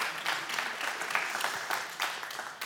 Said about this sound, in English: Would everybody give me a round of applause, please? I need it from my heart. We have some applause, yes.